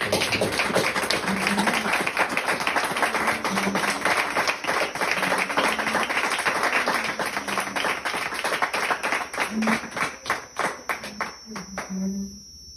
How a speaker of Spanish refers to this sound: te pedimos Jesús que recibas este aplauso de tus hijos en agradecimiento, porque eres bueno, porque nos amas y te quieres.